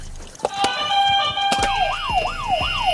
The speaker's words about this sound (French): Vous avez chacun un buzzer. On vérifie que le buzzer marche.